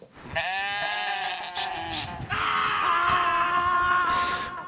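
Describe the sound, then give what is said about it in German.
An office chair creaks loudly in two long, drawn-out squealing groans, each wavering slightly in pitch, with no one talking. “Dieser Scheißstuhl macht sehr viel Krach.”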